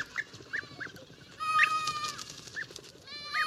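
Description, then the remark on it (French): Young goat kids from a nomadic camp bleat repeatedly in short, high, wavering cries as they join their mothers for the morning suckling, one longer and louder call rising in the middle, with no talking. “mais des petits chevreaux d'un campement nomade viennent troubler leur réveil. Ils rejoignent leur mère pour la tétée du matin et le font savoir bruyamment.”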